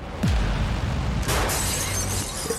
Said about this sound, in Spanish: Vajillas rotas, portazos y puñetazos eran el clima normal de la familia.